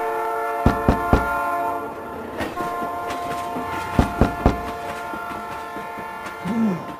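A train's horn holds a steady, droning tone throughout while sharp metallic clacks from the wheels come in quick bursts of three, all loud.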